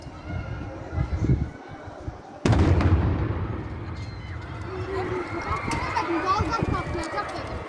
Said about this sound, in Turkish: Mangaldaki közler tezgahın altındaki piknik tüplerinin üzerine düştü. Fark edilmeyen közler bir süre sonra facianın fitilini ateşledi. Tüpler közlerin etkisiyle bomba gibi patladı.